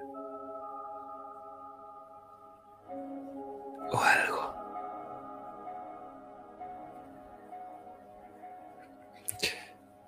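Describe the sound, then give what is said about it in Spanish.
Two heavy, breathy exhales from someone on the other side of a stone wall, one around the middle and another near the end, over a low, steady musical drone. No one speaks. “Pero nosotros nos acercamos hacia esa pared de piedra y no vemos nada, solo vemos la pared y como nuestra vista se acerca y se acerca y se acerca, pero al otro lado escuchamos a alguien respirar.”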